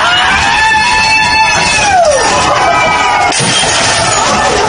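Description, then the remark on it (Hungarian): A loud crowd of protesters against Covid restrictions in Chinese cities screams and shouts at police in chaotic overlapping voices, with high wailing cries rising and falling above a dense roar of agitated people, unrelenting. “Többek között üvegekkel dobálták meg a Covid elleni szigorúság miatt tüntetők Kína több városában is a rendőröket.”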